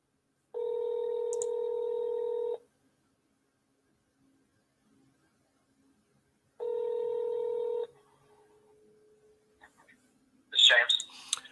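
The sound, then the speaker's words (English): A phone line rings twice, each long steady ring tone separated by a few seconds of silence, and then a voice briefly picks up at the end; a call to a man about selling his house in St. Charles. “We about to get him on the phone either way.”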